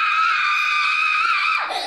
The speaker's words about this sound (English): yeah, that, uh, that final scream made all the statement right there. Uh, that um, we're, this is bad. That's basically what that scream was saying, right?